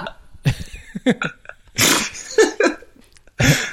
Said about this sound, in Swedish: Man har använt för ja. mycket peppar så här, nu, när man blir 32 så man bara går runt och nyser konstant så man kan inte...